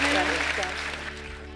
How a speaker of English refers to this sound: So thank you, everybody. Can we give a huge round of applause to our panelists? Have been amazing.